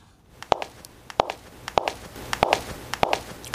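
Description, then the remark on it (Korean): Hard-soled dress shoes click along at a steady walking pace, sharp heel strikes growing slightly louder as the footsteps approach from a distance, with no voices. “오늘은 멀리서 이렇게 다가오는 구두 소리입니다.”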